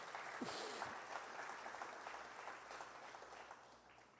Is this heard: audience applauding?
yes